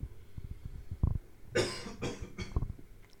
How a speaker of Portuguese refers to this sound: Peraí que eu vou tossir.